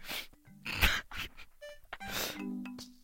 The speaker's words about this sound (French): Et ce chien m'énerve. Oxford, tu restes dans ton panier